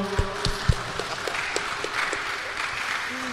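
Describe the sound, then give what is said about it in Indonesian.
An audience at a KBR Ruang Publik radio event about Covid-19 vaccination applauds with dense, steady clapping that holds at an even, moderate loudness for about three seconds, with a few brief voiced sounds mixed in near the start. “Siap, tepuk tangan untuk kita semua dong.”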